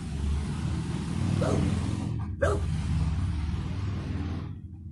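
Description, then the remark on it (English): Dogs barking somewhere in the neighborhood, two short barks rising over a steady rumble of passing traffic and motorcycle engine noise. “Ah, these folks in the neighborhood, loud and dogs and motorcycles.”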